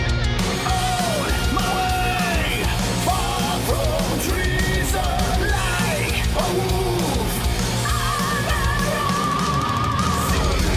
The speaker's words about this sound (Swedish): Oj, vilket jävla skrik!